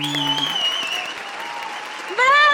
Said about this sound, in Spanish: pero tenemos aquí a Germán Carmendia. Un aplauso. ¡Bravo!